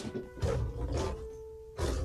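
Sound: lion roaring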